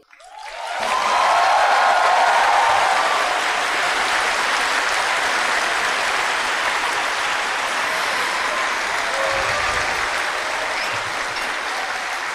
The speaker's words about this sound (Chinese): 这个掌声如果是给我的，他还不错。如果这个掌声是给你自己的，它不够热烈。